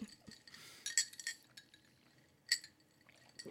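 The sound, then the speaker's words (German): Glasses clink together in a toast during a drinking game, two bright ringing chimes about a second and a half apart, with light clatter around them and no talking. “Jedes Mal, wenn erwähnt wird, dass es sau heiß draußen ist, werden wir hier schön eintrinken. Prost. Verdammt, Prost.”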